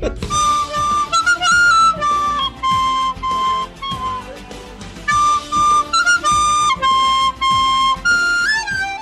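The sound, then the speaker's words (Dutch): A short, upbeat spoiler-warning music jingle plays loud, with a bright lead melody over steady rhythmic backing and brief pauses between phrases. No one speaks over it. “Ik zet even een, uh, een, een spoiler muziekje in om te zorgen dat mensen die ja, je hebt nu, waren, nu, nog tijd om je telefoon te pakken.”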